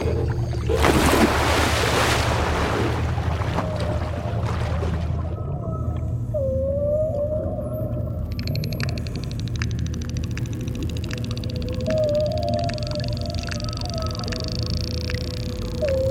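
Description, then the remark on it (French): Underwater dolphin vocalizations: a few short rising whistles and a scattering of sharp clicks over a steady low watery rumble, with a brief rushing burst of noise near the start. “Alors c'est pas du tout le monde du silence. Hein. On entend et on voit.”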